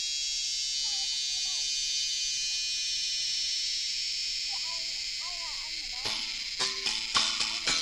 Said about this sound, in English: It's July and it's hot. It's so hot and everything is entirely still. And the only sound is the cicadas.